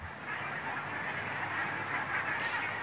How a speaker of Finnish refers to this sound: täällä on tosiaan taivas täynnä hanhia, hanhia taas